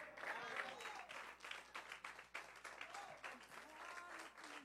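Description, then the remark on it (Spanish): An audience applauds God the Father steadily for several seconds, a dense, even wash of many hands clapping with scattered voices and cheers mixed in. “Alguien puede aplaudir al Padre por 10 segundos y decirle, gracias porque sé que voy a pasar al otro.”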